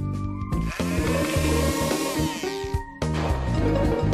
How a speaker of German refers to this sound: Also Wasser auf die Sojabohnen. Und zum Kleinmachen benutze ich einen Pürierstab.